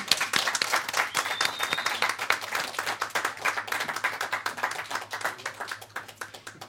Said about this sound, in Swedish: Tack så mycket. Tack Stor applåd.